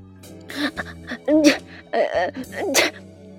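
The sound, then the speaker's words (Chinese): A human voice imitates a dog sneezing, for the dog Achai in a story sneezing after a cold wind blows on him outside the door. It is a run of short, breathy, sputtering bursts, moderately loud, with the strongest sneezes coming in the middle and near the end. “这个时候，阿猜狗在门外被凉风一吹，就打起了喷嚏。”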